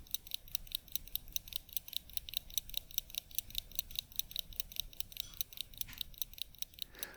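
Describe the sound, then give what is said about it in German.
A mechanical wristwatch, just picked up from a watchmaker and wound once every 24 hours, ticks in a fast, steady rhythm of bright, crisp clicks, several per second, quiet but clear against a faint low background hiss. “denke ich mir, als ich die fröhlich tickende Uhr abhole.”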